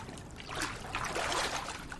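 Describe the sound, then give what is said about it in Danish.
Soft splashing and trickling water for about two seconds, a hand scooping up a handful of water from a shallow pool and water dribbling back down, with no talking. “Men nede i vandet her, jeg kan lige prøve at tage en håndfuld op.”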